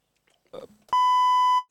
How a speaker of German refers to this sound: Also, Entschuldigung, das war jetzt der Piepston.